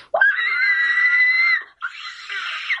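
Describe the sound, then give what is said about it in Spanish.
A singer demonstrates a shrill, strained, uncontrolled high note with an ugly timbre, sung loud and held for about a second and a half, then a brief break and a second rougher, harsher attempt at the same pitch. “Bueno, pues eso también, también doy esa nota maldada, es eh, sin controlar, timbre feo, ¿vale?”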